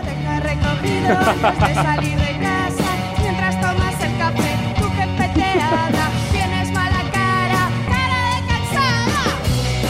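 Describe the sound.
A pop song recommended by a listener plays at full, steady volume: a singer delivers the lyrics over a busy band with bass, rhythmic accompaniment and bright melodic layers, continuous throughout.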